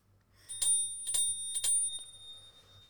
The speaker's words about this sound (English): It's a bell on wheels, and um, I've had it listed on Facebook Marketplace for a few weeks now,